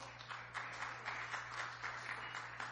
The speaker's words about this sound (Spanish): Dele un fuerte aplauso al Rey.